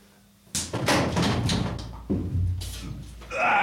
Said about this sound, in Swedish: Och eh, slå mig i ansiktet allt du orkar. All right. Då är det viktigt att du får med höften.